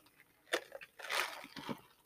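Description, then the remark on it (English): Someone sips a drink: a soft slurp, a brief swallow and a couple of small mouth clicks, all quiet, with no talking. “I've been talking a lot this week, guys. Sorry for my my sips.”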